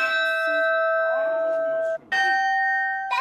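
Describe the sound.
A large, fixed-mounted carillon bell that does not swing, nearly as tall as a bunk bed and one of 60 bells, is struck by a clapper pulled by wire cables; its loud ringing tone sustains for about two seconds before a second strike and a third at the very end, with faint voices murmuring underneath.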